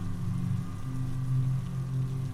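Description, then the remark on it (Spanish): Heavy rain pours down steadily at night during a strong, very windy storm, a dense, continuous hiss with a deep low rumble beneath it, loud, with no voices. “Esa misma noche estaba cayendo una fuerte tormenta y estaba haciendo mucho viento.”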